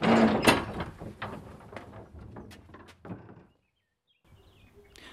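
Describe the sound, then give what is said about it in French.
A small wooden door on the west side of a hospital creaks open with a series of clicks and knocks, then thuds shut, followed by a brief silence and faint ambience. “Nous empruntons maintenant une petite porte à l'ouest.”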